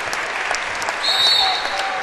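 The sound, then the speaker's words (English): A gym crowd at Bellmont applauds departing senior players as they leave the floor, with steady, dense, sustained clapping that swells slightly louder midway through and scattered cheers mixed into the broad wash of sound. “the last senior to make his way off the floor as this Bellmont crowd uh, shows their appreciation for this senior squad.”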